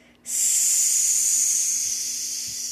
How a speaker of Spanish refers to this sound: Respira, retén y exhala. Incluso puedes sonreír cuando sales y que se sienta así como...